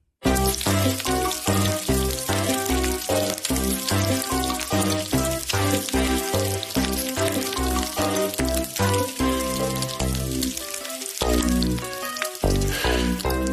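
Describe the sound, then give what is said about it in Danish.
Large pieces of thick, fatty bacon sizzle and crackle loudly in a frying pan, a dense, steady hiss with constant popping that carries on without a break from start to finish. “Og det er store stykker tyk, øh, hvad hedder det, øh, bacon, som man får, altså fra slaget på grisen.”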